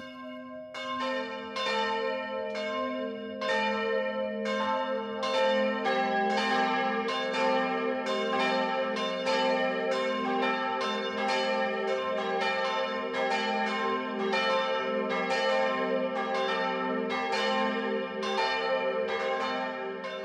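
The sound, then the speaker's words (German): Bells of the Catholic branch church St. Jakobus in Piesenkamm, Upper Bavaria, ringing at 12 o'clock for midday, a steady peal of overlapping strikes with a rich, sustained hum beneath, loud and continuous throughout with no voices. “Das Mittagsläuten kommt heute von der katholischen Filialkirche St. Jakobus im oberbayerischen Piesenkamm.”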